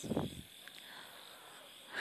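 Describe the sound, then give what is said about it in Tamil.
Frogs croak faintly at night on all sides, one low croak near the start and another at the end, over a steady high-pitched insect drone in a quiet outdoor setting. “இன்றைக்கி மறுபடியும் ஒரு அமைதியான இரவு அமைதியான இரவுலாம் இல்லைங்க இந்த பக்கம் அந்த பக்கம் வந்துட்டு ஒரே தவளை சத்தம் கொயின் கொயின் கொயின் கொயின் கொயின்னு இருக்குது”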